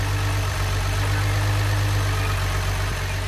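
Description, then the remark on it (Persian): A van's engine rumbles steadily at a low pitch, holding an even, continuous idle with no voices over it, as the van arrives bringing a Christmas tree and toys. “او اون وانتی که درخت کریسمس و اسباب بازی ها رو قرار بود بیاره رسید وای ببین چقدر درخت قشنگه لطفا ماشین راهنمایی کنیم”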